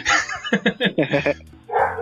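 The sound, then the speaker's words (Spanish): A dog barks, a quick run of four or five sharp, loud barks in a row, framed by a harsher yelping burst at the start and end. “Este, buen puesto de mexicano de tener un perro, no se, no se emputen.”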